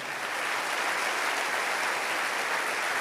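An audience applauds steadily after the preacher calls for louder applause, a dense wash of clapping that holds at an even, fairly loud level for a few seconds with no speech over it.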